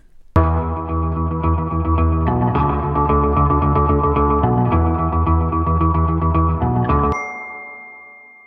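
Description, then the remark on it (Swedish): A short electronic signature tune with dense, effects-heavy synth chords and a steady pulsing rhythm, ending on a bright chime that rings out and fades. No voices. “Ni hörde kanske mig läsa innan eh, introt här, eller innan signaturmelodin.”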